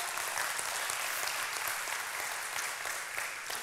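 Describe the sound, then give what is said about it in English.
An audience bursts into sustained applause as a hand clap of praise, a dense, steady wash of many hands clapping at even loudness throughout, with no voices standing out. “Can we raise a hand clap of praise in this house?”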